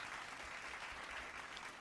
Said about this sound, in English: What's that? What's that? That jazz lounge clap. Yeah, those are those ad libs that tell you that this song is gonna be fire.